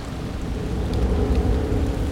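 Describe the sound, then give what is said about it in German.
Steady rain pours down in a forest in a dense, continuous hiss with a deep low rumble underneath, like a storm, with no voices present. “es regnet. Und ich habe keinen Schirm dabei.”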